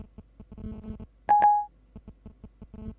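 Short electronic telephone tones chirp in a quick irregular pattern as data is sent back and forth over a basic mobile connection while Siri is asked about the weather, with a louder sustained pair of beeps in the middle, clear with no talking.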